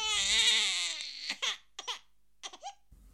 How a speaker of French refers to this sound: À la deuxième stimulation, il s'est produit la même chose, et, en outre, ses lèvres ont commencé à se retrousser et à trembler. À la troisième stimulation, l'enfant a éclaté en un soudain accès de pleurs.